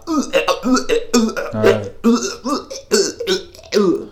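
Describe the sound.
A voice imitates choppy, rapid-fire retching and gagging noises, as in a video edited with jump cuts, a string of abrupt guttural bursts with a deep burp-like grunt in the middle, loud.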